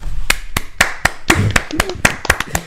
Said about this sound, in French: Enfin, j'ai effacé mes records sur ma bio euh, Instagram, et pour ça, je voudrais au moins des applaudissements.